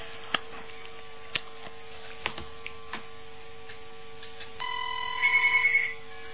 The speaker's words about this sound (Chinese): 哇，那个听众厉害了，边上那电话马上响了，这麻烦就是麻烦了，这个一接那个那边又响了